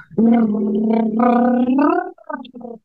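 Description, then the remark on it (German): A person hums the 'Bumblebee' voice exercise, a sustained buzzing, bee-like tone held low and steady for about two seconds with slight pitch glides, then a few shorter broken hums; no words are spoken. “Bei uns heißt, es, weil die Ausbildung aus Amerika kam, ist das die Bumblebee, also die Biene.”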